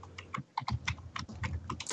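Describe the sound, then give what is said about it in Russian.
Rapid, loud keyboard typing with a steady stream of clacking keystrokes, briefly pausing before resuming at the same brisk pace. “очень громко печатаешь.”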